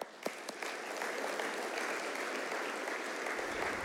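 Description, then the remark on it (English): A church audience breaks into sustained applause to welcome a guest preacher to the pulpit in the morning, a dense, steady patter of many hands clapping that builds quickly after a few scattered first claps and continues evenly throughout. “Would you welcome him to the pulpit this morning?”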